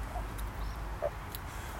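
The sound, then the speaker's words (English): At 6:13 a.m. on a Thursday in November, a steady low rumble of traffic fills the background while a couple of short, faint bird chirps sound apart from each other over it. “Traffic, bird calls.”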